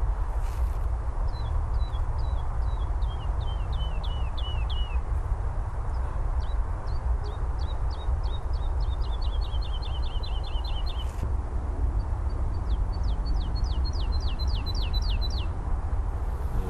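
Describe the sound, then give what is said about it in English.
A woodlark sings in spring on Chobham Common in Surrey, in repeated descending phrases of fluting, liquid notes, some slow and spaced, others speeding into quick trills, over a steady low wind-like rumble with no talking. “Celebrate spring and the wonderful song of the woodlark on Chobham Common”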